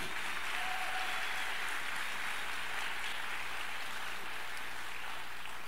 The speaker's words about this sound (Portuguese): palmas a Jesus bem alto.